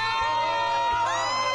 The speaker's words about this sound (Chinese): 来了，哎，快点快点，给我第一 round，我要嗨一点，给我一个尖叫声。